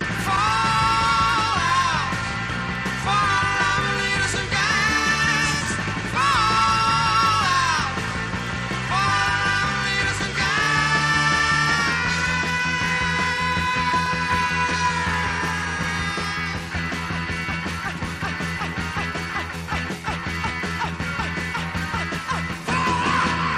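A fast, raw early punk rock single, a band's first single, plays loud, with shouted vocals over driving distorted guitars and pounding drums at a steady, unrelenting level.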